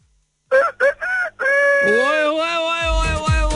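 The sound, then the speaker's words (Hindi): A person imitates a rooster's crow, starting with a few short choppy bursts and then one long, drawn-out wavering call, loud, with no other talk during it. “कोई ऐसे मुर्गे मुर्गे कैसा निकाल करो मुर्गे कैसा हाँ हाँ करो करो करो करो बिल्कुल ठीक है करो”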